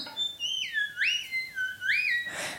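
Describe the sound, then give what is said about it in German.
A theremin played at its highest note sings a high, pure, whistle-like tone that swoops smoothly up and down several times, followed by a brief burst of hissy noise at the end. “Das ist jetzt mein höchster Ton auf dem Instrument.”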